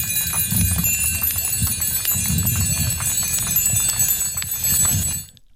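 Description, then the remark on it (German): A dense, continuous clamor of about 150 bicycle bells ringing at once in approval of a speaker at a bicycle demonstration on the Day of the Bicycle, 3 June 2020, a bright metallic chorus of overlapping trills over a low crowd rumble, stopping abruptly at the end. “So klingt es, wenn circa 150 Fahrräder auf einmal klingeln, aus Zustimmung für die Rednerin auf der Fahrraddemo am Tag des Fahrrads, dem 3.”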